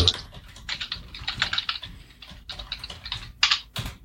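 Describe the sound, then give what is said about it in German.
Brisk typing of a text command on a computer keyboard: a steady run of quick key clicks with short pauses between bursts, with no voices alongside. “Ich habe nur öffne Tür geschrieben so.”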